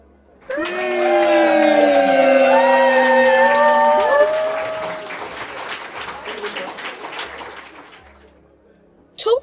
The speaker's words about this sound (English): Balloons elevated into the air as the room went into an absolute uproar, with people running back and forth, screaming and cheering.